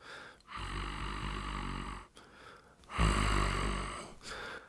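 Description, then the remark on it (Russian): Two long, hoarse, growling breaths from someone large, raspy, rumbling and loud, with a brief pause between them; the second is heavier and deeper than the first. “сиплый то ли рык, то ли вздох.”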